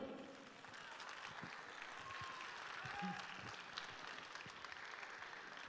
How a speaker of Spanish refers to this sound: Aplausos para Murga do Naveiro.